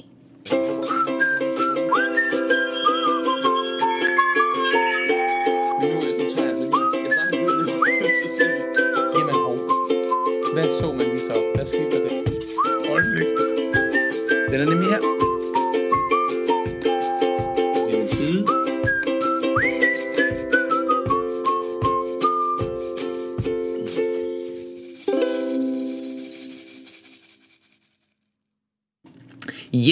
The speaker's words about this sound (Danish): Jeg har fløjtet på forhånd, så du kan bare sidde og nyde fløjteriet, eller lægge en lille anden stemme på, hvis du er i det humør.